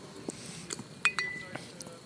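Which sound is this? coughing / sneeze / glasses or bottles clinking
glasses or bottles clinking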